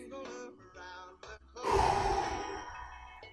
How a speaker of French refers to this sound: excusez, je, je, fais une crise de panique là je vais utiliser la respiration des Navy SEALs, là, comme je vais inspirer 3 secondes. Regardez mon souffle.